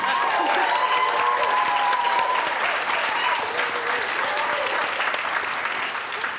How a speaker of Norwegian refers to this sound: Må dere klappe nå?